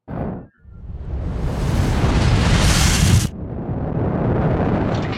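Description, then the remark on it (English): A brief thump, then a massive explosive shockwave roar swells into a loud, rumbling rush of noise that cuts off sharply and gives way to a steady, lower roaring wash. No voices. “Then a shockwave shook the neighborhood as the house became a tear in space.”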